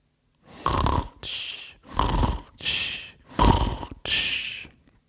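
Loud snoring from within a strawberry plant in a strawberry field, with three full breath cycles, each a rough rattling inhale followed by a breathy exhale, in a steady rhythm with no other sounds around it.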